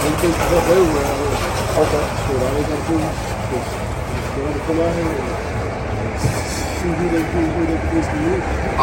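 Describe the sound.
A car drives by outdoors, its steady engine and road rumble filling the background while people talk indistinctly over it.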